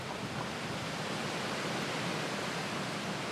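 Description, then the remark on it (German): A steady, dense roar of rushing water from a waterfall on the south shore of Loch Arkaik in the Scottish Highlands, holding an even loudness throughout with no voices or breaks. “Wir halten bei den Cake-Wasserfällen am Südufer des 20 Kilometer langen und bis zu 800 Meter breiten Loch Arkaik.”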